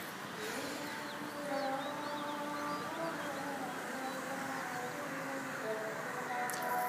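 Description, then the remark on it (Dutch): A muezzin's call to prayer from a mosque, a long, wavering sung voice held over steady city hum, with faint bird chirps, crows, mopeds and traffic noise around it. “Hoe noemt de man in de moskee die eh, oproept tot het gebed?”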